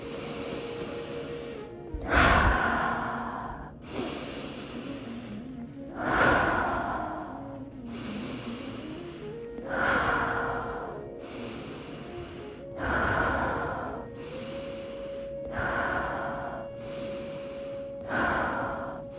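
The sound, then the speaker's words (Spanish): Slow, deep breaths drawn in and let out in a steady rhythm for a guided breathing exercise, about five cycles, clear, with a soft sustained tone humming underneath in the background. “Llénate de energía y sigue el ritmo de mi respiración.”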